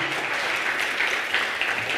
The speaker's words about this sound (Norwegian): Hvor gode dere er! Jeg syns det der bandet må få seg en klapp.